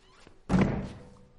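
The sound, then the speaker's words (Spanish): A door is shut by a man with a single solid thunk, fairly loud, its low thud fading quickly into quiet with no talking. “Él cierra la puerta.”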